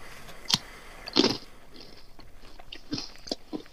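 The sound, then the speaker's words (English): Crunching of a Kit Kat chocolate wafer bar: a sharp snap, then a louder crackling bite, followed by several softer, irregular chewing crunches, heard alone with no talking. “so have a bit of munch.”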